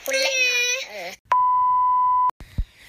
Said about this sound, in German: Ja, und sorry für die Hintergrundgeräusche. Meine Schwester guckt gerade einen Film